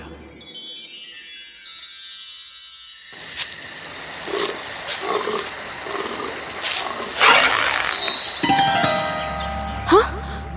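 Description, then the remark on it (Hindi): A deer calls out with a few bleating, roar-like cries over a wild outdoor background, the calls fairly loud, with sharper bursts near the end. “वो बस अपना धनुष लेकर शिकार करने के लिए तैयार बैठा था तभी वहां एक हिरन आया”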